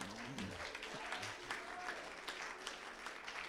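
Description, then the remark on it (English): A church audience claps their hands to give the Lord a hand, in steady, sustained applause, a dense crackle of many overlapping claps filling the whole clip, with a few faint voices murmuring underneath. “Give the Lord a hand Amen. Clap.”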